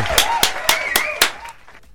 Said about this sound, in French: Fred est avec nous, applaudissements.